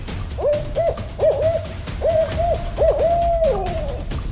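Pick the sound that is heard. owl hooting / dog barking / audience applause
owl hooting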